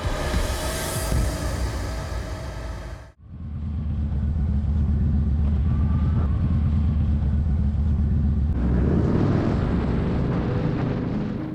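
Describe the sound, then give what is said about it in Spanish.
A motorcycle rides through New York City, its engine roaring loudly and steadily, briefly cutting out for a moment before resuming as a continuous low rumble that grows rougher and louder toward the end. “Y como podéis ver, ejecutaré dicho ejercicio así, en moto.”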